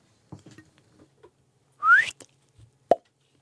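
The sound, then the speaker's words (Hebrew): A person whistles one short, loud note that glides upward in pitch, preceded by faint clicks and followed a moment later by a single sharp pop. “לשרוק מותר לך?”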